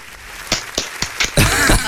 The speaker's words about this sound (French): Un petit, un petit applaudissement quand même.